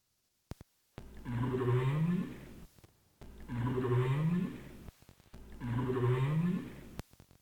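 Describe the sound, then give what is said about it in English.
A North Atlantic right whale up call, a contact call, repeats three times, each a rising, moaning whoop about two seconds long, separated by short pauses with faint clicks, clear and fairly loud with no voices. “This is the up call, and the up call or a contact call that is most commonly heard when whales are alone or joining with another whale in the Atlantic Ocean.”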